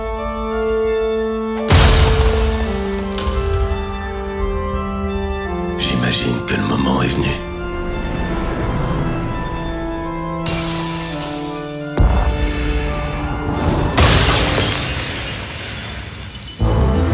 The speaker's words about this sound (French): on écoute la bande-annonce du film pour vous montrer un peu à quoi ça ressemble